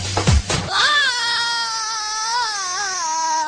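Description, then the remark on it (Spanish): A loud, high-pitched scream rises after a brief noisy burst and holds for about three seconds, wavering slightly in pitch, piercing. “Y ese grito es el de ….”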